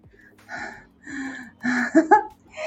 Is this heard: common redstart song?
no